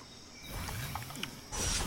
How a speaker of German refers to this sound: Ah, Wolf.